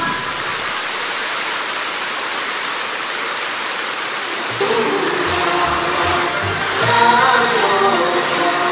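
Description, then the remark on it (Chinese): A crowd applauds steadily to welcome station director Lu Junhong, a dense continuous patter of clapping that holds at an even level throughout, with low musical tones joining in about halfway through. “现在，让我们用最热烈的掌声，恭请尊敬的卢军红台长。”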